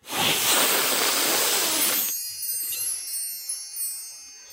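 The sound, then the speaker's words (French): A magic powder teleport sound effect, marking a trip to Franche-Comté: a loud, broad whooshing burst of hiss for about two seconds that cuts off abruptly, leaving a faint shimmering, high-pitched sparkle ringing and fading afterward. “fais péter la poudre magique, on part en Franche-Comté.”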